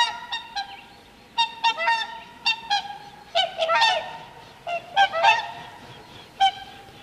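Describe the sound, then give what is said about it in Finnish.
Swans trumpet in a loose series of loud, brassy honks, some single and some in quick overlapping bursts, as if several birds call back and forth, over a faint background hiss. “Keväisin joutsenen toitotus kertoo, että pian on taas hetki aikaa hengähtää ja nauttia valosta ja lämmöstä.”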